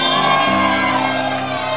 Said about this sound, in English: I am more than a conqueror. Somebody scream.